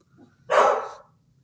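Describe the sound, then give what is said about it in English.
A single loud, sharp dog bark, lasting about half a second, preceded by a faint low rumble and followed by quiet. “Hold on, my dog is barking.”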